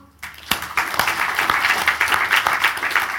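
A round of applause starts abruptly after a brief quiet moment and holds steady, many hands clapping in a dense, crackling wash with a few sharper individual claps standing out.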